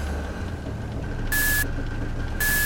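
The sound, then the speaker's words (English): Two evenly spaced electronic beeps, each a steady high tone with a burst of hiss, repeat over a constant low engine-like rumble, as a ship's radio signals an incoming call. “Looks like someone's trying to call us on the ship's radio.”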